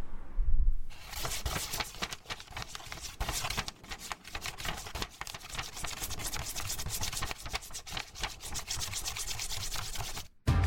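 A pen scribbles hard on paper, drawing a big scribble at the back of an Easter egg drawing to make its tail, in a steady, scratchy rush of quick back-and-forth strokes for about ten seconds, fairly loud, with no talking and a brief break just before the end.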